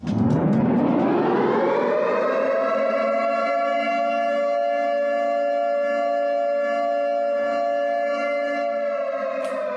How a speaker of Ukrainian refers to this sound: Ось такий сигнал має прозвучати у вашому місті чи в селищі в разі надзвичайної ситуації або під час нападу ворога.